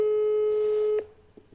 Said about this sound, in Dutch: We gaan bellen. Hopelijk. Werkt dat hier nu? Hopelijk horen jullie dat, ook.